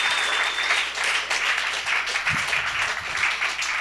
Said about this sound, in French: Je, sais pas, euh, applaudissez, sinon c'est juste, c'est juste fucking awkward.